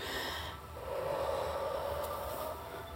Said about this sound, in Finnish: Hengitä nyt hyvä ihminen, ihan oikeesti, rauhoitu. Hengitä ulos.